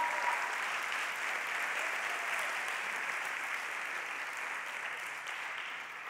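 An audience breaks into sustained applause to the Lord at night, a dense, steady wash of many hands clapping at an even level for several seconds, with no voices standing out.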